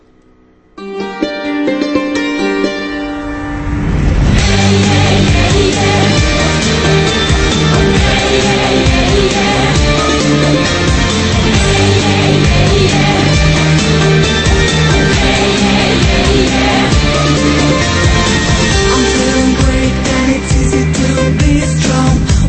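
An upbeat pop song with vocals, Belarus's entry for the Eurovision Song Contest, plays loudly, opening with a brief, lighter intro before a full, dense band arrangement kicks in after a few seconds and drives steadily on to the end.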